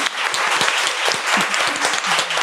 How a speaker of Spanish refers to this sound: Yo creo que eso se merece un aplauso ah, por tu perseverancia.